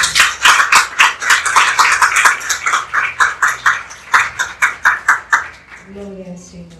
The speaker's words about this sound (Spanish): Vamos a dar un fuerte aplauso al Señor.